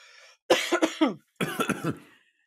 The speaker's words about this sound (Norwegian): Så tar vi en liten hostepause.